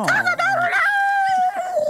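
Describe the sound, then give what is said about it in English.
A person imitates chickens with their voice, a quick burst of choppy clucking sounds that stretches into a long, drawn-out squawk, loud, with no other talk. “I mean, what were the chickens doing? That.”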